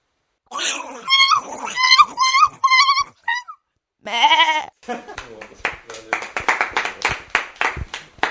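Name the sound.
lost sheep bleating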